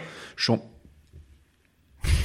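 A dog makes brief, breathy noises: a quick huff followed by a short whine-like yelp, a quiet pause, then another loud snorting rush of breath.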